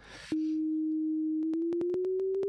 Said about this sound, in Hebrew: אגב, אני אגיד שמה שאתם שומעים כרגע זה נטו גל סינוס שהוא אפילו לא קיים בטבע, זה ממש אה, אה, גל קול מלאכותי.